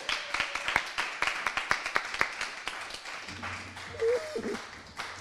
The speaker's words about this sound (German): Und klatsch bitte nochmal für das ganze Team vom Franz-Mehring-Platz, die uns eingeladen haben.